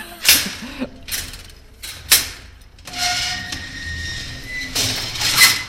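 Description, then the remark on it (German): A metal scissor grille on a ground-floor window of a former Stasi building is pulled open with a series of sharp clanks and rattles, then a long grinding, squealing slide, ending in a couple of loud metallic knocks. “Ich mache mal eins auf. Heute können wir es aufmachen.”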